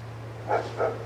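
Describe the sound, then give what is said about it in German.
A neighbour's dog gives two short barks, about a third of a second apart, over a steady low electrical hum. No one is speaking. “Während der Nachbarhund bellt, kommen wir zu Anregung Nummer 4.”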